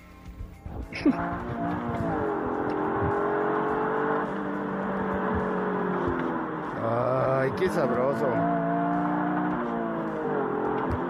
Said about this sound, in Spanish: Ay, qué sabroso. Eso lo grabé con mi teléfono hoy, ¿ok? Eso lo grabé con mi teléfono hoy, exactamente, apenas. Pero no es el único sonido que les voy a mostrar hoy. Ese es de un coche japonés, pequeñito, a ver, si, a ver quién le atina, ¿eh?